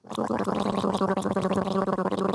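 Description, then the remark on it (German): Steady, bubbly gargling fills the whole moment, a continuous wet rattle of liquid in the throat with no speech, done for a Covid-19 test at a school in the canton of Graubünden, Switzerland. “Gurgler, Gurgler, Gurgler, das gehört seit neuestem in den meisten Schulen im Kanton zum Stundenplan.”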